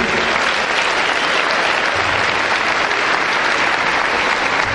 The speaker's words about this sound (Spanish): Así que si alguien te está llamando, dale un, aplauso de donde estás.